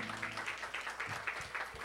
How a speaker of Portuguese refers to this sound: Aplauda bem forte o Senhor Jesus, amém?